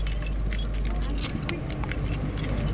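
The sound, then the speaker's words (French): Metallic jangling and clicking as a bicycle is locked at a bicycle parking rack by the château on the Île de Noirmoutier, a busy run of light chain-and-lock clinks over a low engine hum that fades partway through. “Il y a un parking pour les vélos, je vais aller attacher le mien.”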